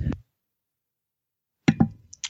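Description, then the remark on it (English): A muffled sneeze: a short breathy burst, a pause of silence, then a sharp double burst of air, with no talking around it. “Sorry, I had to sneeze there real quick.”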